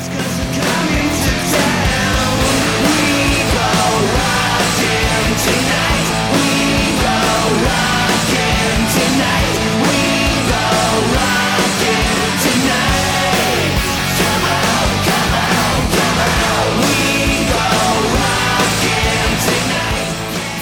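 A loud 1983 Swedish hard rock song plays continuously, with dense distorted guitars, steady pounding drums and energetic vocals filling the full twenty seconds at constant volume.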